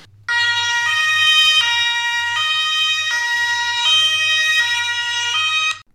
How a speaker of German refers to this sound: Genau, außer, außer diesem Pressluft gibt es eben auch das Elektrohorn.